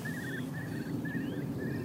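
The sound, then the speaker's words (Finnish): Eurasian curlews' bubbling display calls, a series of repeated whistled trills, carry from a few hundred metres away over a steady low outdoor rumble. “Nyt kuovit vetää”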